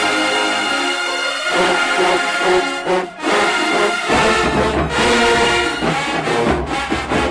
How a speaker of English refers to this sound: Yeah, there we go. trumpets.